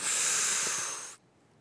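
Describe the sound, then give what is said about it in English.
A loud, steady airy hiss, like compressed air blasting through flour and water over a condom-covered microphone, holds for about a second with faint bubbling underneath, then cuts off abruptly into near silence. “Be a condom covered microphone. Yeah. Dipped in flour, water, and compressed air. Yes. That is how it was done.”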